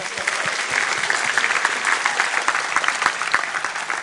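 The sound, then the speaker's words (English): An audience claps for the children helping on stage, steadily for about four seconds, a dense, bright patter of many hands with sharp individual slaps poking through, holding an even loudness throughout. “Let's give our helpers a clap.”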